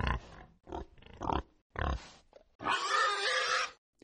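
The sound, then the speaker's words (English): A pig sound effect: a pig grunts several times in short bursts, then lets out a longer, louder squealing oink. No talking is heard. “Now, obviously, you mustn't confuse Cameron's poppy with Cameron's pig.”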